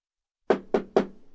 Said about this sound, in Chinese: 敲门声突然加重了力度，柳溪猛然醒悟。这是有人在敲他的门。